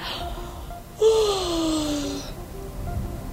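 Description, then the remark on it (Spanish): A person fakes a single drawn-out yawn, a breathy voiced groan that slides steadily downward in pitch for about a second before trailing off into quiet. “¿Y si el otro bostezo?”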